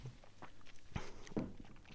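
Someone takes a quick sip of water, with two short, soft swallowing or glass-handling sounds a moment apart against a quiet background.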